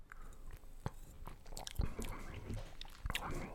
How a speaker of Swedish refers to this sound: Jag smakar, jag smuttar lite på den här.